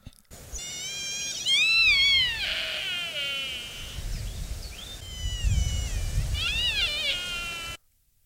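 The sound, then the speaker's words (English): A sika deer stag gives loud, high-pitched whistling screams in two bursts of rising and falling wails, with a low rumbling background and no one talking. “harrowing call, and I've only ever really experienced it just as it's getting dark in a wood, and it is just I, awesome”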